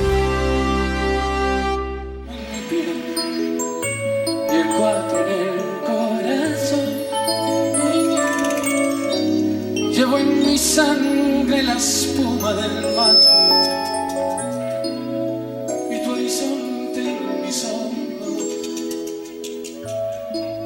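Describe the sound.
A recorded song with a male singer's voice over steady instrumental backing with a deep bass line, loud and continuous throughout.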